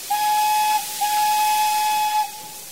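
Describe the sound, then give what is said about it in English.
A little train's steam whistle sounds twice as the train starts its descent, first a short toot and then a longer, steady blast, with a bright, high tone over a breathy hiss and no voices. “They watched the little train disappear.”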